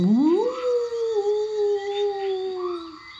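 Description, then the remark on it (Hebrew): A single dog howl rises quickly in pitch, then holds a long, steady wavering note for about three seconds before fading, with no talking. “סניור זורו הביט למעלה, ראה את העשן, ומיד עזב את החבית וברח, מיילל עם הזנב בין הרגליים.”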